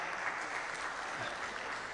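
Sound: audience clapping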